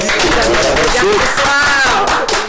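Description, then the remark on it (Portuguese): A loud round of applause from a crowd, dense steady clapping with voices cheering and calling out over it throughout. “uma salva de palmas.”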